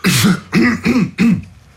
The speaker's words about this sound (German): so, jetzt kriege ich gerade einen Husten.